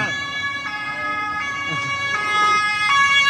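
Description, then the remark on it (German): A police siren sounds steadily, its bright tone cycling in a regular pattern about every second, fairly loud over a low background rumble, with no one speaking. “Ja, sobald ich da dran gehe, da kommt schon die Polizei, ne?”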